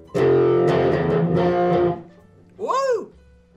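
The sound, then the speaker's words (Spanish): A distorted electric guitar riff by a band played live: a run of loud, sustained chords for about two seconds, a short pause, then a single note bent up and back down. “Me estoy armando con la guitarra.”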